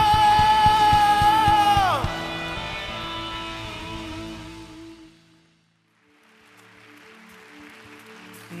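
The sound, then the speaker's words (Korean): A church audience roars with a loud shout of victory and cheering, giving glory and thanks to the Lord, over sustained music, a high held note sliding downward, then a brief hush before softer music and murmuring crowd noise return. “우리 주님께 영광과 감사의 박수 올려드립시다. 승리의 함성!”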